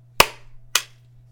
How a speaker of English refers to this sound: All right, then we're gonna do a clap. In five, four, three, two, one.